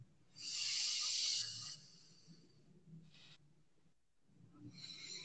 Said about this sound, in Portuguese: Percebeu o que eu fiz? Você inspira, inspira para um lado, solta pelo outro.